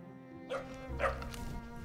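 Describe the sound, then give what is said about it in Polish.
A tracking dog, a Doberman, barks twice in quick succession, the sharp woofs standing out clearly over a low, steady background rumble, with no talking in between. “Po raz pierwszy, i to nie tylko w historii Krakowa, ale i całej Galicji, wykorzystano do tego celu psa tropiącego.”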